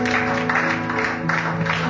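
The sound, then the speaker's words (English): A church audience gives a hand clap of praise to Jesus, clapping along in a steady, rhythmic pulse, a dense wash of many hands over sustained low musical tones, moderately loud and unbroken throughout. “That's not a mighty hand clap.”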